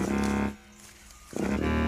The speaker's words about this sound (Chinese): 糟了，好像是狮子的声音。